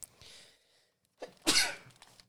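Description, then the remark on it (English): A single loud sneeze: a breathy intake, a short catch, then a sharp explosive burst that trails off quickly. No one speaks. “Um, hey man, you, sometimes you don't see the sneeze; it just pop up on you.”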